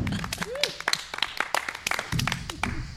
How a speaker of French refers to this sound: Quel talent, ça mérite des applaudissements, s'il vous plaît.